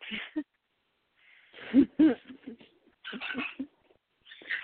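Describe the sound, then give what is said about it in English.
A kitten squeals and mews while playing, in bursts of high, scratchy cries, several short calls separated by brief pauses, moderately loud with no talking. “I hope nobody minds the sound of the squealing.”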